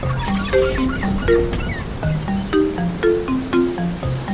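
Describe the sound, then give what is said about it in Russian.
Oars dip and splash in sea water at a steady rowing rhythm as a boat weighs anchor and sets off, over a constant wash of surf, with a light plucked melody playing alongside. “Снимаемся с якоря. Весла на воду.”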